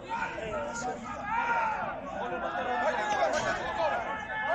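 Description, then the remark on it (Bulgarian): Several voices shout and call out over one another in a steady outdoor babble: players yelling on the pitch in a football match video featuring a Tsarsko Selo player, with no commentator and no single voice standing clearly in front. “Чува се, чува се, какво вика, да.”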